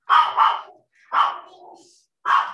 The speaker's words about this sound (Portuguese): com o Igor latindo de fundo